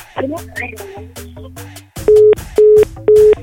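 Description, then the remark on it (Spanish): After a moment of muffled line noise, three loud, steady beeps of a telephone disconnect tone sound at an even rhythm, each short and mid-pitched, signaling the call has ended. “Ya colgó el teléfono, no sé si se lo pasaron o algo, pero...”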